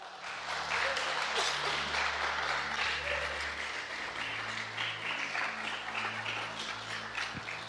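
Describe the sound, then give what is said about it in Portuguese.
A sustained round of audience applause, dense crackling claps filling the whole stretch at a steady, fairly loud level, with a low hum underneath and no clear speech. “Você pode dar uma linda salva de palmas?”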